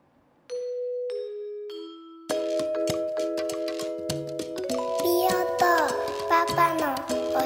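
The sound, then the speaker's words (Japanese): Three clear descending chime notes ring out, then a bright, busy radio jingle for Mio to Papa no Oshaberi Radio kicks in with layered tones and a listener's son's voice singing or speaking over it, fairly loud. “ジングル聞いてください”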